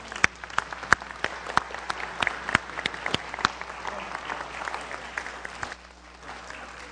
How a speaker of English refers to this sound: Let's give the Lord a clap offering, shall we?